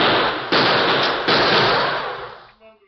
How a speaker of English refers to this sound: Hold that gunfire in there. This is the law talking.